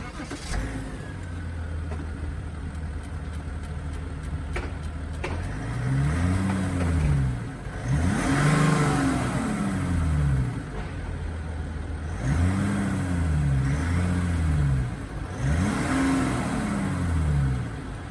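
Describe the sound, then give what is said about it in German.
A diesel SUV engine idles with a faint ticking clatter, then revs up and back down four times in smooth rising and falling swells, with no one talking. “Es ist ein Diesel und ich würde gerne wissen, falls jemand eine Idee hat, was dieses Klack, Klack, Klack, Klack, Klack ist, was man auch noch hört.”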